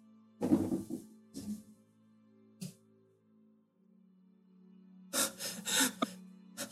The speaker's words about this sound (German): Und ihr hört aus dem von euch aus gesehen linken Gang einiges an Geräuschen, schweres Atmen und jemand scheint da an der Tür zu rütteln.